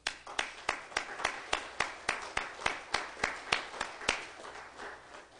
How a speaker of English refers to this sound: Mothers, you are probably God's greatest creation. And I just want to join with the rest of the church and give you an applause this morning.